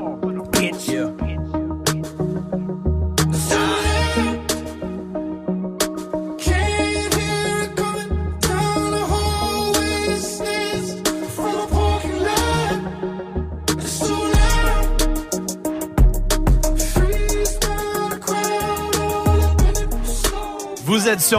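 A rap track plays loud and close, with a steady beat and rhythmic vocals over dense backing music; deep, punchy bass hits grow heavier in the second half.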